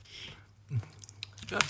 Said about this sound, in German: weil es wird einfach zu viel geschmatzt